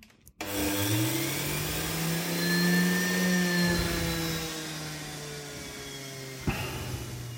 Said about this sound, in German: Ich kann euch ja einmal einen kurzen Eindruck von dem Geräusch, Geräusch des Entsafters geben.